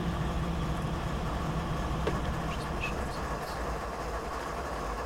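A large American diesel locomotive engine drones steadily, its deep rumble and rail noise holding at an even, fairly loud level throughout with no one speaking.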